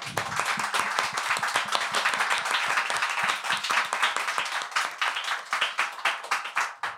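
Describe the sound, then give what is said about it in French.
A live audience breaks into sustained applause, dense overlapping claps at steady loudness that thin into more distinct individual claps toward the end. “Donc voilà, je voudrais qu'on l'applaudisse s'il vous plaît.”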